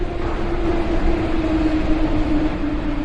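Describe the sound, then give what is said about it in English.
A high-speed train runs steadily, producing a continuous loud rumble with a faint whining hum layered on top, holding constant throughout with no voices. “But now the high speed railway is accessible for many people. It only takes an hour for such a train to travel the distance of 300 kilometers.”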